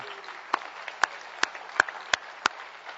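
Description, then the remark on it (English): A crowd applauding to welcome back the returning Mexico mission trip team, a steady wash of soft clapping with a few sharp claps standing out at a regular beat, moderately loud, and no voices. “Let's welcome back.”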